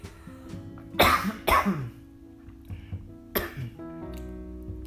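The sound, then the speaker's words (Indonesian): Someone coughs twice in quick succession, then coughs again after a short pause, with some throat clearing, over a faint steady low hum. “aduh sorry tiba-tiba batuknya ini”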